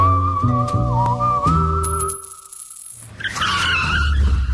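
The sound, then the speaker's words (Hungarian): A car engine revs loudly in rising, stepped bursts while tires squeal in a long, high-pitched skid, then after a brief lull another gritty screech of tires and roaring engine follows. “Visszakapcsolunk kettesbe, és adunk egy kövér gázfröccsöt.”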